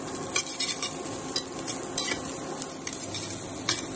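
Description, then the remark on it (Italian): Guanciale sizzles steadily as it is fried in a pan for carbonara, a dense crackling hiss with scattered sharp pops and a few light scraping clinks of a utensil stirring it. No one speaks. “Fase numero 1, soffriggiamo il nostro guanciale.”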